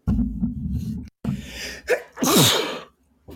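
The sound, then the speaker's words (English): A loud sneeze: a sharp intake of breath and build-up, then an explosive burst of noise that trails off, followed by a brief quiet breath. “Bless you.”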